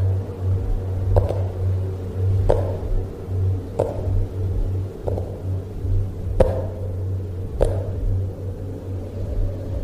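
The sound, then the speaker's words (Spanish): Six slow, evenly spaced knocks by someone on the other side of a wall, each a dull thud about a second apart, sounding somewhat muffled over a steady low hum. “Estaba tocando desde el otro lado de la pared.”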